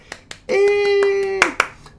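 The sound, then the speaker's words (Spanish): A few sharp, separate hand claps in an uneven rhythm, roughly ten in two seconds, with a loud sustained voiced cheer or held tone ringing over the middle stretch. “unidos de aplausos por favor.”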